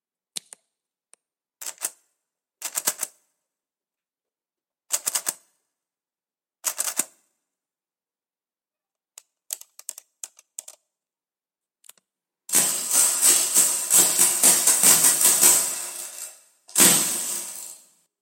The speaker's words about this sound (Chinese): 这个实际上是一个拨算盘声音的采样啊，然后做了一些后期处理啊，肯定你刚乍一听是不像算盘的。